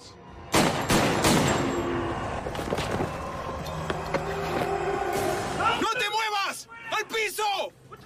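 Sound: rapid successive gunshots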